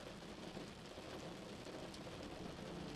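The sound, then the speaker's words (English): Steady, soft rain drizzles continuously against a window, a dense even hiss of droplets with no pauses, gentle, with no voices. “Deep sleep rain at your window”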